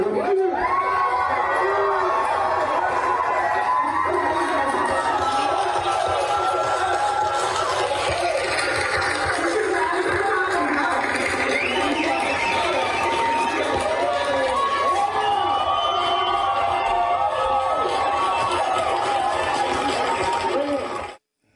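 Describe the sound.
A crowd at a Williamson County schools meeting cheers and shouts loudly and steadily for about twenty seconds after a speaker tells parents not to let their kids wear masks, with whoops and overlapping voices forming a dense, continuous roar that cuts off abruptly at the end.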